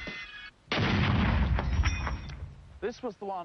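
A single powerful shaped-charge blast goes off suddenly against steel blocks, fully penetrating them. It is loud, its roar rumbling and fading over a second or so before a voice begins talking.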